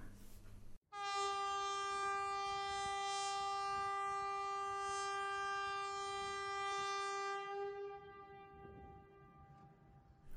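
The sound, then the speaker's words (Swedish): A single loud, steady blast from a public warning typhoon horn sounding the VMA (Viktigt meddelande till allmänheten, Important Public Announcement) signal, one unwavering tone held for about seven seconds before it fades out, with no voices over it. “Vilket hörs genom att en tyfon tjuter och då ska man gå in och lyssna på radion och eventuellt stänga ventilation beroende på vad som har hänt.”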